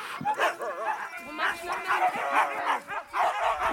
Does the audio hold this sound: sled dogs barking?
yes